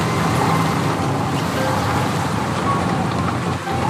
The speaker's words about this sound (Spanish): Nuevamente el viento azotó con toda su violencia